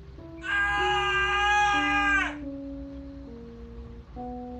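A man screams in pain, a loud, high, strained cry held for about two seconds over low sustained musical tones, which then carry on alone after the scream cuts off.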